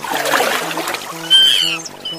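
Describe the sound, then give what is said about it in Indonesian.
Water splashes in a quick flurry as hands scoop it to wash a face at the edge of a lake, then fades as a few bright bird chirps ring out over soft, steady background music. “Momo bermain ke tepi telaga. Setibanya di sana dan mencuci muka”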